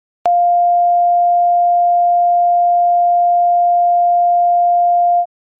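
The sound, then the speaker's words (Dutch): A steady pure sine test tone at 700.5 hertz holds at constant loudness for about five seconds, with an abrupt click at the start and a clean cutoff, no other sounds. “Oké, laten we nu de andere eens horen. 700 en een half.”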